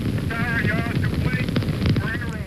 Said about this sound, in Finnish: We have ignition, two, one, zero, we have a liftoff. We have a liftoff, and it's lighting up the area. It's just like daylight here at Kennedy Space Center as the Saturn V is moving off the pad. It has now cleared the tower.